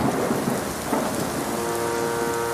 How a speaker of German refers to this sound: Schwere Regentropfen fallen auf das graue Kopfsteinpflaster.